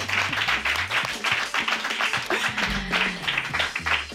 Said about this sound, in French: S'il vous plaît, on applaudit, on applaudit.